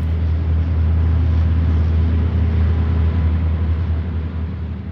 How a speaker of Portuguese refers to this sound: Em pleno centro passavam colunas de carros de combate. Lá dentro, caras assertivas de rapazes muito novos.